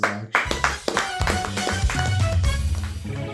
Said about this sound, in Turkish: bir alkış patladı